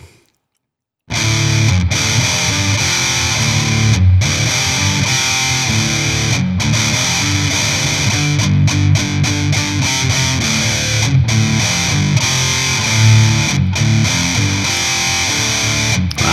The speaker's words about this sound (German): Ist halt ein, also, ist halt ein Distortion-Pedal, aber okay. Es, es, ist halt ein Distortion-Pedal und ich muss auch ganz ehrlich sagen, ähm, ich meine, so schwarz wie das ist äh, und äh, bei dem Gain, was das schon macht